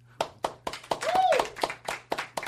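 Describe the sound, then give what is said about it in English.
Applause comes as a steady run of sharp, evenly spaced claps, about four per second, with a brief rising-and-falling vocal whoop in the middle. “I'm not here for your applause.”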